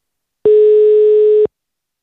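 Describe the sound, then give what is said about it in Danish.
One loud, steady electronic phone ringing tone lasting about a second, a single flat pitched beep with clean start and stop, heard alone with no voices, as a phone call is placed to someone in Liverpool, United Kingdom. “Lad os øh, lige prøve at ringe til hende og høre, hvordan det står til over i Storbritannien.”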